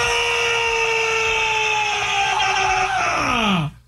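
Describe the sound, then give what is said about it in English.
A man lets out a loud, raw primal scream held steady for almost four seconds, strained, its pitch sliding downward just before it breaks off. “Primal scream and go.”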